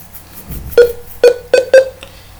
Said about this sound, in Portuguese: Para quem está a ouvir e é uh, uma pessoa normal visual, estes barulhos é o leitor de ecrã a nos indicar que o programa está a ser atualizado.